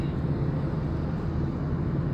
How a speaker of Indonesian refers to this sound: masih di dalam mobil sambil jalan pulang jalan pulang ataupun jalan pergi ya gitulah pokoknya